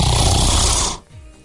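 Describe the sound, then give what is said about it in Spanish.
A single loud human snore, a real recording and not a sound effect, with a harsh, rattling rasp that lasts about a second, then cuts off into quiet breathing-level background. “Y ronco así, o es más, este, este, es un ronquido grabado literalmente de mí.”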